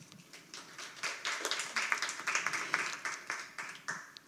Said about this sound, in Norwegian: Eh, da vil jeg bare at vi skal gi en varm applaus til panelet eh, vårt, og ønske de lykke til.